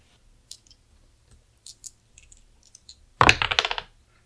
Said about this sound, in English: Okay, roll a d roll two d six.